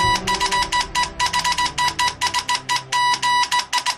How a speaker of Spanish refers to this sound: Este es el sonido del telégrafo, patentado hace exactamente 180 años por Samuel Morse, un tipo más conocido aquí en España como Morse.